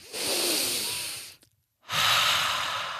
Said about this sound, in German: Aber ansonsten kurz die Augen schließen, einmal tief ein- und ausatmen.